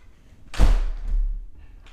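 window being closed

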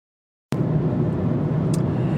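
car interior noise

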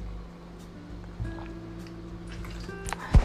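pouring and drinking water

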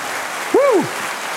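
audience clapping

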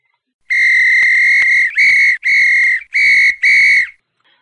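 whistle being blown

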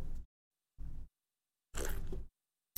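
sipping hot coffee

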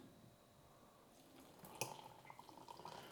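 pouring hot water

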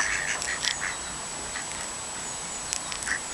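ducks quacking

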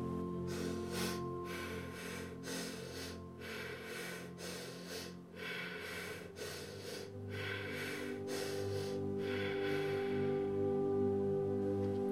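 deep breathing exercise

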